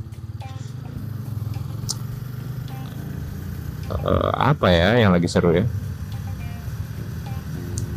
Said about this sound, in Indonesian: Oh iya kita di eh kita gue di atas motor sekarang